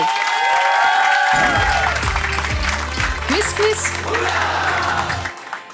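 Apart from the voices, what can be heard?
audience applause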